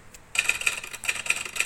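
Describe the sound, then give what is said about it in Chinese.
Rapid typewriter typing by cows begins after a short silence: a steady stream of sharp, bright metallic clacks, some strikes ringing higher, continuing without pause and with no voices. “Cows that type，会打字的牛？”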